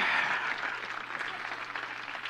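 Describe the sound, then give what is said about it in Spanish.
An audience breaks into steady applause for God, a dense wash of many hands clapping at once, loudest at the start and then holding evenly. “Un aplauso a Dios, sí, o sea.”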